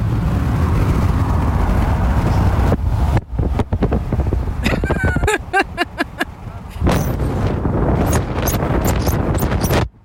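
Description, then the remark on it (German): Loud, roaring wind rush from a phone held out of the window of a car driving at 140, heavy low rumble with sharp buffeting gusts and pops battering the microphone, continuous throughout. “sein Handy bei 140 aus dem Fenster gehalten”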